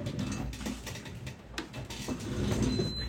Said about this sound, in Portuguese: Gente, só deixa eu ligar o ar-condicionado aqui, que tá muito quente.